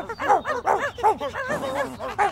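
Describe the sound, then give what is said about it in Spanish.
A dog barks rapidly and repeatedly, a steady run of sharp, loud yaps with almost no pause between them, slightly rougher and higher toward the end. “El trapecio ladra.”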